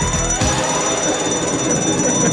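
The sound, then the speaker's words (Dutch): A steady electronic alarm blares for a couple of seconds, a sustained high tone over a dense, noisy buzzing layer, loud with no talking. “…, alarm.”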